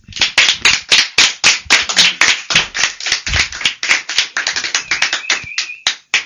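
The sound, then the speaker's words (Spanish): Sustained applause from an audience for both Christmas teams, many hands clapping in dense, rapid overlapping bursts that stay loud and steady for several seconds without any talking. “Damas y caballeros, demos un, demos un caluroso aplauso a ambos equipos de la Navidad.”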